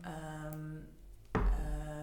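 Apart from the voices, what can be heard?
phone beeping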